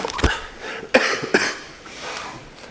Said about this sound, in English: Apologize for my coughing. It's probably only going to get worse.